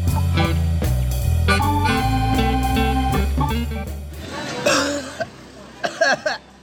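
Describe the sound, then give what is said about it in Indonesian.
Music plays for the first few seconds, then stops and gives way to a fit of harsh coughs: several rough bursts in quick, uneven succession near the end. “Batuk-batuk bangke.”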